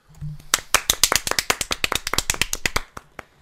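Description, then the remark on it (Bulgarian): A short burst of applause from a small group welcoming a professional football goalkeeper as a guest, crisp claps rattling quickly for about two and a half seconds before stopping, with no voices. “Аплодисменти!”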